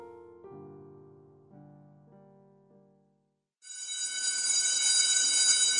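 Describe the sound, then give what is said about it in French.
A few soft, low chime-like tones play, then a brief silence before a loud electric school bell rings continuously, bright and metallic, until the end. “La sonnerie retentit enfin pour les libérer des atomes et leur ouvrir la voie de la cantine.”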